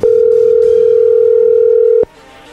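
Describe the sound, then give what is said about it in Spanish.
A telephone call tone while dialing a call that is not answered: one steady, mid-pitched electronic hum held loudly for about two seconds, then cut off sharply, leaving only faint background noise. “Sí, la cosa es que no está contestando.”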